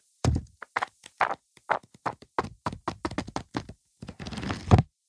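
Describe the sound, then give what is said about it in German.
A book is handled: a quick run of soft taps and dull thunks on the cover, then a longer rustling sweep of pages flipping, ending in a firmer thump. “Ähm, ich möchte kurz einen kleinen ASMR-Moment haben, denn falls ihr schon immer mal wissen wolltet, wie”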